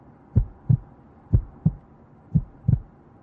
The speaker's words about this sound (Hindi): उसकी धड़कन तेज हो रही थी